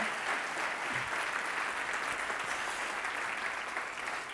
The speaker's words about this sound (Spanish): quiero pedir un fuerte aplauso para todos los que trabajan semana a semana en la elaboración de todo lo que ven